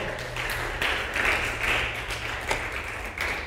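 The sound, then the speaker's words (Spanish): An audience applauds the Lord after a sermon, in a steady, dense wash of clapping that carries on without pause for a few seconds, moderately loud and filling the room, with a faint low hum underneath. “¿Cuántos pueden darle un aplauso al Señor por esta palabra de amor?”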